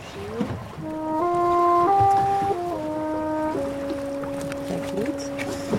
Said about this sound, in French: bah, entre le bateau de pêche derrière nous et nous, bah, c'est nous qui faisions le plus de bruit.